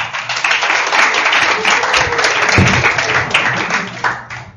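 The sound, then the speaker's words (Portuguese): Loud, sustained audience applause at a lecture welcoming the coordinator of a postgraduate program in Mediation and Conciliation, a dense rattle of many hands clapping steadily for several seconds before thinning out at the end. “Uma salva de palmas.”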